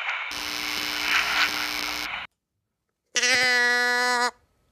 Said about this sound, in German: Das ist nicht der Bergelefant. Das war jetzt wieder unsere Trennhummel.